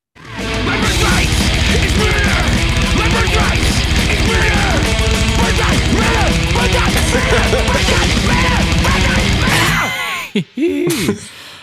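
A loud, dense band plays at full tilt for about ten seconds, then cuts off abruptly, leaving a single voice screaming the song's title in a short, pitch-bending shout to close the song.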